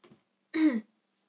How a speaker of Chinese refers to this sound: 我打嗝了，好烦哦！